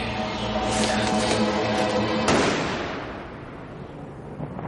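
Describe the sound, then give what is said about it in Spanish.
A single sharp gunshot from the street cracks out midway through a dense, droning background, its echo rolling off and fading slowly over the next couple of seconds. “Desde la calle se oye un disparo.”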